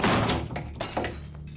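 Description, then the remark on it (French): A bedroom door locked from the inside being forced open: a run of heavy, dull thuds and knocks in an uneven rhythm, with a low rumble underneath and no voices. “Celui-ci s'acharne à son tour sur la porte avant de prendre la décision de la faire enfoncer.”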